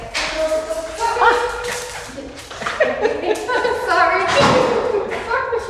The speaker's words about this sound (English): a very boisterous and welcoming dog.